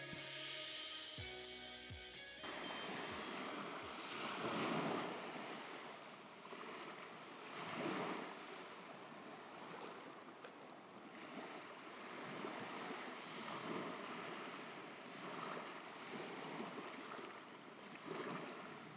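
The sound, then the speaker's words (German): Steady sea surf rushes continuously, with waves swelling and breaking every few seconds in a broad, washing roar; a brief tonal jingle plays at the very start before the surf takes over. “Ich hoffe, du erkennst, dass das nicht einfach ein Rauschen ist, sondern tatsächlich Meeresrauschen.”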